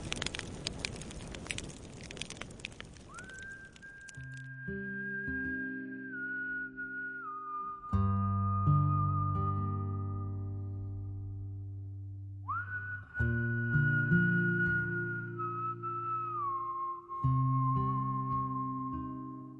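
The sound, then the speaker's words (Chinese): A campfire on a bleak, empty plain crackles in the opening seconds, then someone whistles a slow melody of long, held, sliding notes, a tune once whistled by mine workers, over a low sustained instrumental backing, with no talking. “这是我小的时候，矿场的叔叔们一直在哼的一段口哨。”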